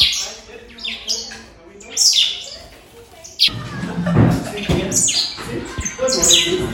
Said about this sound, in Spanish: ¿Qué traen, pajaritos? ¿Qué se roban? Ya les puse pan en la mesa. Vengan.